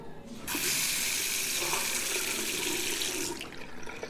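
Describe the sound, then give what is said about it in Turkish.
A tap runs steadily into a sink in a toilet for about three seconds, a loud hiss of splashing water as water is splashed on someone, starting abruptly and cutting off just as suddenly. “Bir, bir yüzme bir su vurayım da ablacığım.”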